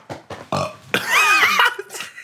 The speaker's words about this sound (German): Hm, hast ein Bäuerchen gemacht, Kleiner, ne? Kleiner. Ja, soll ich dir mal auf den Rücken klopfen?